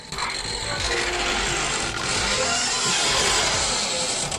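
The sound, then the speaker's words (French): A door creaks steadily for several seconds, a rough, grinding squeal with a ratcheting texture that holds at an even, fairly loud level without pause. No voices are heard. “Va quand même falloir à un moment mettre un bon coup de dégrippon à cette saloperie de porte. Hein. Elle grince vraiment beaucoup.”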